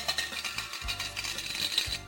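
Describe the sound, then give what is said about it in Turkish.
Coins of loose change from pocket money drop and rattle into a piggy bank, a dense run of bright metallic clinks and jingles, with no voices. “Evet tıkır tıkır tıkır tıkır her harçlıktan bir kısmı kumbaraya. Önce kuvvetli bir sesle düşer bozuk para.”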